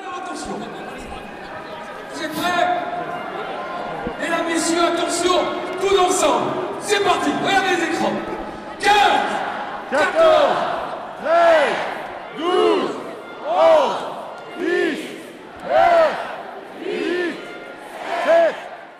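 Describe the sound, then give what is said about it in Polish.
A crowd of about 30,000 roars and cheers loudly at Emmanuel Macron's election rally in an arena at La Défense, Paris, then settles into a rhythmic chant in unison, about a dozen evenly spaced shouted beats echoing through the large hall. “30 tysięcy ludzi przyszło na spotkanie z prezydentem Macronem.”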